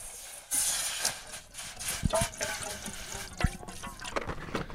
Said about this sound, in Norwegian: Da tar du fram en liten kjele og heller bare så mye vann som du vil oppi.